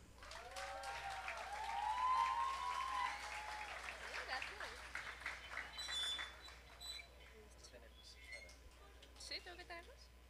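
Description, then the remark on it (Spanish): An audience applauds warmly for a short-story writer being introduced at a poetry recital, a dense wash of clapping that swells over the first few seconds, with a whistle rising above it early on, then gradually thins out toward the end. “Un aplauso, por favor.”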